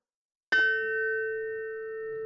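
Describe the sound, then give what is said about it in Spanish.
A telephone rings with one sudden bell-like chime that hangs in the air, its clear metallic tone fading slowly. Fairly loud, with no voices. “Suena el teléfono.”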